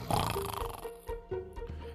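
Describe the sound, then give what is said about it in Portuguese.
Loud, rasping snores in a few rough, throaty bursts with no speech, apparently a voice imitating heavy snoring. “Primeiro a soprar, depois a roncar baixinho e logo o ronco ficou tão forte que as vidraças tremiam.”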